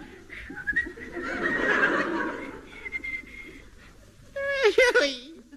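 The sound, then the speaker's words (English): A Boy Scout whistles a short, bouncy, merry tune over a busy noisy background, the notes wavering up and down for a few seconds, followed by a quick, shaky vocal sound like a nervous snicker. “The Boy Scout keeps his spirits up by whistling the merry tune.”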